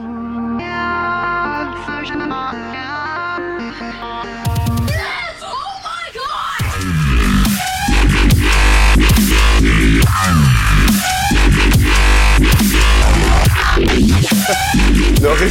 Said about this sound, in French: Ils ont pensé donc au dubstep. Ils ont enfermé des moustiques qui ne s'étaient pas nourris depuis 12 heures avec un hamster et ils ont diffusé pendant 10 minutes ce morceau.